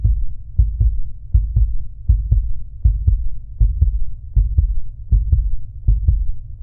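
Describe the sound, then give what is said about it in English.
A baby's steady heartbeat of paired, muffled thumps repeats at an even pace over a constant low whooshing hum. It sounds fairly loud, with no voices. “It's not just a heartbeat, it's your baby's heartbeat.”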